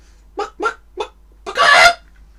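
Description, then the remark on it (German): A voice imitates a honking, bird-like dinosaur call: three short nasal honks in a quick rhythm, then one longer, louder, raspy squawk. Clear, with no talking. “Da man aber sagt, Vögel stammen von Dinosauriern ab, vielleicht haben Dinosaurier auch so gemacht.”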